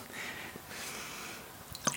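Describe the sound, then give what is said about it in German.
A cork is worked out of a wine bottle, with a couple of seconds of soft squeaky friction ending in a quick, sharp pop and a small click. “ich entkorke den Wein.”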